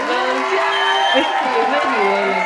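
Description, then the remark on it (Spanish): A short burst of an applause sound effect, played to applaud a production: a dense crowd cheering and whooping at steady, loud volume throughout, with many overlapping voices and no single speaker. “Voy a, poner aplausos a sus producción”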